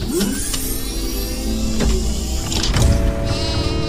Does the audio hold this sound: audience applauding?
no